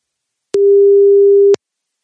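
One steady, mid-pitched telephone ringing tone, heard while placing a call. It is a single one-second beep, loud and clean, with faint clicks at its start and end, and no voices.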